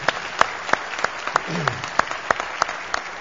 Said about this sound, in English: And I would just like to give a big round of praise to the folks who have been serving and to celebrate God and His work in our lives. So could we just give a big applause of appreciation? Thanks.